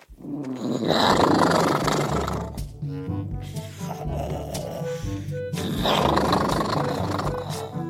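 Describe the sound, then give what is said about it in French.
Loud, rumbling snores from a sleeping dinosaur named Elliot, asleep in a bag: two long roaring breaths with a quieter growling stretch between them. “Et je ne sais pas si vous avez déjà entendu un dinosaure qui ronfle, mais disons qu'il ronfle fort, très très fort.”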